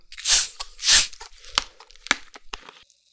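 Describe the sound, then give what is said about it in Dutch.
Two sharp hissing bursts as the cap of a chilled 1-litre bottle of Albert Heijn ginger beer is twisted open, followed by a few crisp clicks and soft fizzing as a little is poured into a glass, with no talking. “Oké, ik giet even een bodempje in een glas.”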